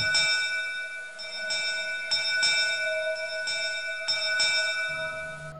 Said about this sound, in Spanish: Una nave corsaria francesa en aguas del Océano Pacífico cerca de las costas de California es envuelta por un denso banco de niebla. Durante 20 minutos navega a ciegas hasta que súbitamente el vigía hace sonar la campana frenéticamente.